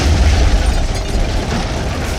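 A loud, deep boom of enemy artillery shell blasts raining fire amid the snowy, bone-chilling cold of Leh, Ladakh, with a heavy low rumble at the start, then a sustained roar of crackling noise that stays strong throughout, with no voices.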